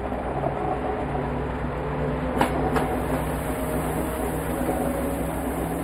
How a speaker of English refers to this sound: So we're seeing the train leave what is presumably a stop, maybe the train yard, right?